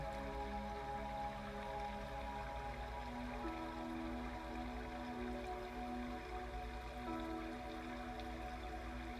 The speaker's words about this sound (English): Anytime you are feeling fatigued or bogged down by the world, you can close your eyes and come back to this deeply healing waterfall.